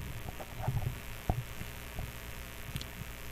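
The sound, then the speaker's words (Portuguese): A steady, faint static hiss fills the line, layered over a low hum, with a few soft thumps and clicks scattered through it and no one speaking. “É chiado, né? É. Deixa eu ver se é o meu. Mas é, é aí no seu, chiado.”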